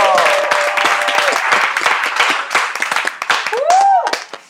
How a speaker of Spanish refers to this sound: quiero que le demos un fuerte aplauso a …